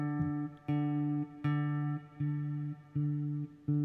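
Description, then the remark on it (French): A guitar string plucked with the thumb, sounding the same warm note over and over at a steady, unhurried pace, each pluck ringing out until the next, with no talking. “Là j'ai fait, euh, tu vois de suite le ah. son est pas le même. Pouce.”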